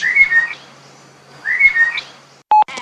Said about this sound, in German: Das ist eine Amsel